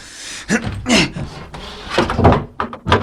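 A door being opened: a few sharp clunks and rattles of the latch, then a short creaking swing and another thud, all fairly loud with no talking.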